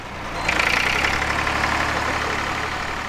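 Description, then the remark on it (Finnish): An old tractor engine idles in a barn on a farm in a small village in Brandenburg, eastern Germany, while it is being repaired: a steady, rough rumble with a faint knocking beat, holding the same level for the whole stretch with no voices. “Perheen isä Jens Noiman korjaa ladossa vanhaa traktoria.”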